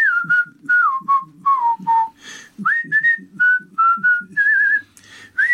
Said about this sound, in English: He's just showing off that he can whistle.